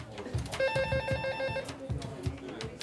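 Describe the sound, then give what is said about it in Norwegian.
A telephone rings once in a radio newsroom in Sweden in 2009, as people call in with tips, a bright, steady electronic tone lasting about a second, heard at moderate volume over a backdrop of soft, rhythmic low thumps. “Folk ringer og kommer med tips.”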